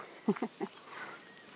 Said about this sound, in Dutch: Er zijn wel wat eh, vogels aan het zingen. Eenden aan het kwaken.